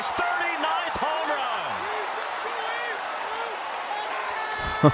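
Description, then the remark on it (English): A sold-out stadium crowd at Rogers Center in Canada roars and cheers steadily throughout as Shohei Ohtani hits his 39th home run, a dense, loud wall of noise with individual voices rising and falling inside it and a sharp knock near the end. “You can hear the crowd going wild.”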